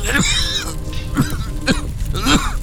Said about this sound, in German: Da verselbstständigte sich sein Körper, er nahm einen heftigen Atemzug und hustete so stark, dass er sich übergab.